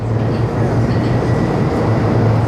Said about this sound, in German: als er in der Bahn sitzt, um ins Büro zu fahren.